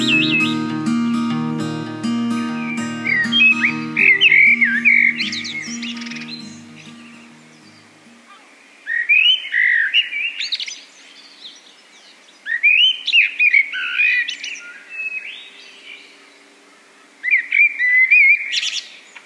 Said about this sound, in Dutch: Misschien van een kerk, uh, van de... Eh, torenvalk, denk ik.